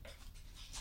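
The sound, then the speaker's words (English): A dog pants in quick, breathy bursts, fairly quiet, with faint shuffling and scratching underneath as it circles on a hardwood floor before lying down, and no one talking. “But uh, sorry, if you hear that scratching, that is my dog.”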